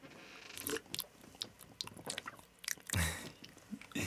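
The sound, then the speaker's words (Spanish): Wet chewing with crunchy bites repeating irregularly over a few seconds, then a louder gulping swallow near the end, with no talking. “Vamos a cerrar con ruiditos para que escuchen tragar.”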